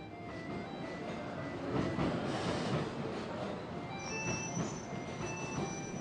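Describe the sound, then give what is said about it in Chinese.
A train rumbles steadily along with a dense, continuous roar, and thin high-pitched wheel squeals join in during the last couple of seconds as it slows toward a stop on arriving at Shangrao. “火车慢慢停下，零零落落的乘客拎着行李下去了。”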